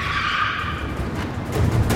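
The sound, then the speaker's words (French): The tires of an R25 car skid loudly as it brakes hard to stop across a road in Roubaix during a police chase. A sustained high-pitched squeal plays over a rumbling engine, lasting about two seconds with no talking. “La R25 monte sur le trottoir, puis double à droite, slalom entre les voitures et freine brutalement pour se mettre en travers de la route.”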